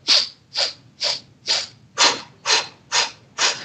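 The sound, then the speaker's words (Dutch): Eight quick breaths in a steady rhythm about twice a second as a breathing exercise: four sharp sniffing inhales through the nose, then four puffed exhales through the mouth, with no talking. “Dus dat was vier keer ademen in, met mijn neus en vier keer okay, dus uitademen met mijn in mond.”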